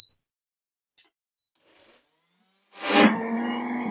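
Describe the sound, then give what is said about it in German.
After a few quiet seconds with faint clicks, a blender roars to life blending the first half of the ingredients, its loud whirring motor whine holding steady through the end. “So, ähm, ich mache jetzt erstmal die Hälfte nur kurz damit der Mixer. Achtung, jetzt wird's laut, ja.”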